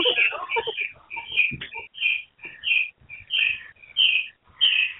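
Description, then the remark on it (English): A bird chirps repeatedly in short, bright bursts, roughly a dozen calls in a steady, uneven rhythm, clear, with a jumble of faint lower sounds at the start. “well, I hear a bird.”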